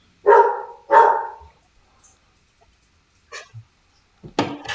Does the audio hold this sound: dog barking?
yes